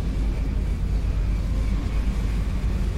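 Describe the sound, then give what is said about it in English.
A deep, continuous engine roar rumbles steadily throughout, heavy in the low end with a hissing wash above: the growing roar of a moon bus's engines as it descends from the sky. No voices are heard. “That gradually grows larger and larger, accompanied by a growing roar.”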